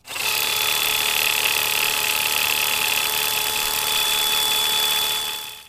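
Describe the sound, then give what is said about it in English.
A quick cut greens harvester runs with a steady, high-pitched mechanical whine and buzzing motor drone, continuing for several seconds, starting and stopping abruptly. “That's a quick cut greens harvester, which I mainly wanted to play in order to prove that I own one”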